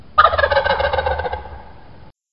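A wild turkey gobbles in one loud, rapid, rattling burst that lasts about two seconds, trailing off at the end, with a low rumble underneath and no voices.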